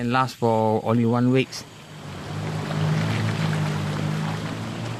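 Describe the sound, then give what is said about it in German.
A boat's engine hums steadily under a broad wash of rushing water as it travels over river rapids into the rainforest of Taman Negara National Park; a short, loud tonal call sounds at the very beginning. “Mit dem Boot geht es über Stromschnellen weiter in den Wald hinein.”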